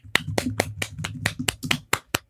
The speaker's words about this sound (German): Ja, okay, ich klatsche auch gerne alleine. Ähm, ja, ich finde sich selber beklatscht immer ein bisschen komisch, aber nee, es geht ja auch darum.